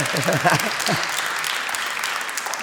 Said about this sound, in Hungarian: De hogy ezt milyen jól megtanultak a tévében, nem? Hogy két gyenge poén után már azért tapsoljuk.